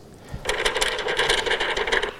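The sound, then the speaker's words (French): A recorded example of paper crinkling and rustling, a dense run of sharp crackles that starts suddenly after a brief quiet moment and continues steadily to the end, with no voices. “Ça c'est un papier, ça c'est le papier gaussien, à nouveau, et le papier par ondelette.”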